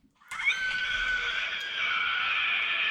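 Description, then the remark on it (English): A monster creature in a horror film gives a loud, shrill screech that holds steady for nearly three seconds, piercing and tonal, almost like a strained horse whinny. It starts abruptly after a brief silence, with no talking. “that was literally the fucking sound that thing made when it first showed up, and then it would just do that.”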